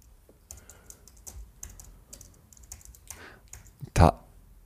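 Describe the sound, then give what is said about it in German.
Rapid, irregular clicking of keys on a computer keyboard as someone types a Google search, fairly quiet, with a couple of brief pauses and one sharper, louder keystroke near the end. “Ich äh, kann es mal schnell ich googeln. Google's mal kurz.”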